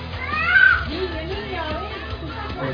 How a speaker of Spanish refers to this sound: El que está gritando atrás, de fondo.